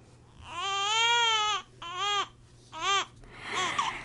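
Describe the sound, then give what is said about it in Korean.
A newborn baby wails just after birth in a hospital delivery room, three loud, drawn-out cries with short gasping pauses between them, clear, trailing off into softer fussing. “그렇게 둘 사이에선 아기가 태어나고”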